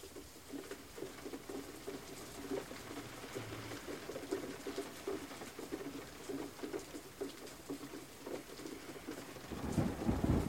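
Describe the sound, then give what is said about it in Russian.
Steady rain from a thunderstorm over a garden patters on glass throughout, dense and even, with low rumbling of thunder swelling louder near the end. No voices are heard. “Но атмосфера сада настолько расслабляющая, и успокаивающе, что город кажется каким-то далеким, а гроза не пугает даже собаку, которая спокойно легла у твоих ног.”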